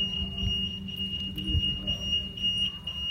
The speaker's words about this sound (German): Was ist das denn jetzt? Meistens sind das so Müllautos, die rückwärts fahren, die so piepsen.